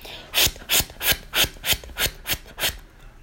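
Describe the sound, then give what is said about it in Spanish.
A device plays normal pulsing arterial blood flow, the way it should sound when examining a patient: a quick, regular series of about eight loud whooshing beats, each with a swishing rasp, heard alone without any talking. “En esta, este aparato se debe de escuchar así, chicos, se debe de escuchar de esta manera.”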